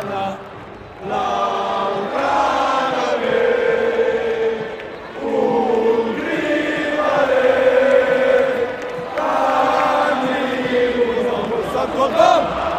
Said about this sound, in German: Guys, ich kann es ich kann's nicht beschreiben. Hört's euch, hört, hört ins Stadion rein.